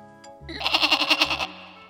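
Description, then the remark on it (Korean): A person imitates a goat's bleat, calling to a goat at a rural family home, a single wavering, quavering cry about a second long with rapid pulsing, loud with no talk around it. “염소야 너무 먹는 거 아님 이렇게 울었거든요.”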